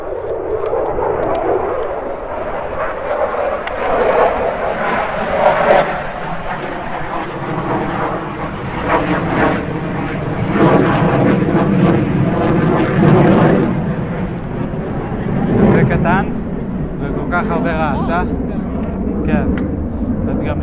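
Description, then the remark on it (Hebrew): A military jet aircraft roars overhead in a loud, steady rumble that lasts throughout, in an area where military exercises are held constantly, while people talk underneath the engine noise. “כל הזמן הם עושים פה תרגילים. עושים תרגילים. ולפעמים יוצאים למתקפות.”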